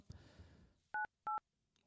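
Two crisp, loud keypad dialing tones beep in quick succession, each a short steady dual-pitched note, preceded by a brief rustle of handling noise, as someone dials a phone to call the Circle K petrol station at Kiellandsplass.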